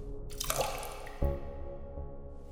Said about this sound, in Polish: Jedynym odgłosem była kapiąca krew.